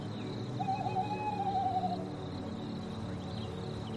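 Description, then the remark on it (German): A Eurasian eagle-owl hoots from far away on a moonlit night by a snowy forest path, one drawn-out call rising over a quiet background and then fading, with no voices present. “Aus der Ferne ruft uns ein Uhu zu.”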